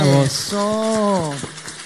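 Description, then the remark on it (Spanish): A crowd claps steadily in the background, a dense crackling patter running under a man's voice that speaks over it throughout, moderately loud. “Es de San Luis, hermano, también. Eso, aplausos.”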